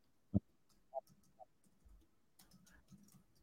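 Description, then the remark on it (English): Keyboard typing as someone types out a URL: a few distinct, spaced-out key clicks, then a quicker, softer run of taps toward the end, with no talking. “So you keep on talking. I'm typing.”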